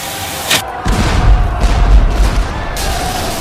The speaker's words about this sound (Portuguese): Quando a bandeira negra estava no topo do mastro, a capitã gritava e os olhos da tripulação brilhavam para a batalha primeiro vinha o som macio dos canhões e da madeira despedaçando no navio inimigo.